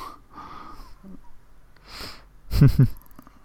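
A short burst of coughing, two quick harsh hacks near the end after some breathy rustling and a sharp intake of breath.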